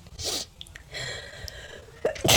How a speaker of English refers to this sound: Wait, I have to sneeze. One second, guys.